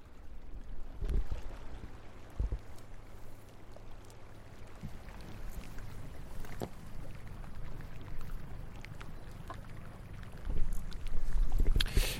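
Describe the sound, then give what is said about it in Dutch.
A boat moves steadily through water past a group of kittiwakes, with a continuous wash and lapping against the hull over a low rumble, plus occasional knocks and splashes. No one speaks. “we, we, varen nu langs een uh, groep uh, eh, triteenmeeuwen”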